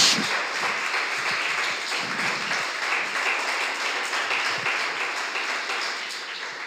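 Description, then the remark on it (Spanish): An audience applauds loudly and steadily for the Lord, dense overlapping claps forming a continuous roar that holds its level throughout, with faint voices mixed in. “Este aplauso para el Señor. Háganlo fuerte.”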